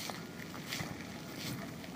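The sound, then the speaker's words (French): Wet, squelching footsteps in soft mud made of rain-soaked volcanic ash from the Sakurajima volcano, two or three soggy steps at a slow walking pace over a steady watery, breezy background, moderately quiet. “Avec la pluie, euh, la cendre se transforme en boue et ça fait squitch squitch du coup.”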